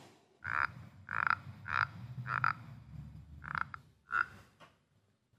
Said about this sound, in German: reibt den Daumen dann gegen den Boden und die Seite vom Glas. Und dann fängt das so an zu knarzen.